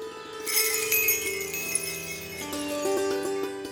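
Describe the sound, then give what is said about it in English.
Bells jingle in a forest in a bright, continuous shimmer of high tinkling tones. Clearer, more separate chiming notes ring out toward the end, with no voices. “There it was, the bells again, closer this time.”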